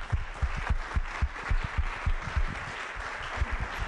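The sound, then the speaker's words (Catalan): Sustained applause from an audience at a gala, for the people who make the programmes and for the listeners, dense irregular clapping that holds steady at a moderately loud level for the whole stretch, with no voices standing out. “Un fort aplaudiment per tots vosaltres.”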